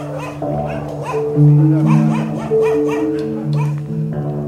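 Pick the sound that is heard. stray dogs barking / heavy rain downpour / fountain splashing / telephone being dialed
stray dogs barking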